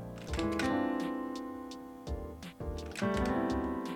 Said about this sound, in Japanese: あ、やっぱなんか多分このマイク、音声とってるマイクにね、打鍵音が乗っちゃってるんで、ちょっとガチガチうるさいかもしれないですけど